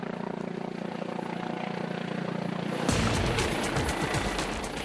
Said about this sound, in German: Ein Kollege soll vom Hubschrauber abgeholt werden. Um weder die Mannschaft auf dem Schiff noch die in der Luft zu gefährden, muss der 31-Jährige hochkonzentriert arbeiten.